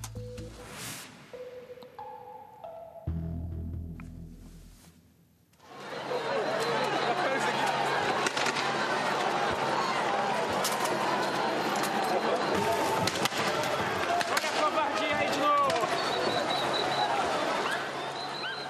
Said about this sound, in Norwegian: Ja, det er eh, lyden av eh, Brasil. Det er ikke sambatakter og fotballjubel, men eh, vi hører politiet. Det fyres av gummikuler, det blir brukt tåregass i denne situasjonen.